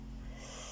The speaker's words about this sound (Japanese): デグーがうるさい、デグーがうるさいんですけど、ピーピー。すいません。ちょっと音が入ってる可能性が高いんですけど。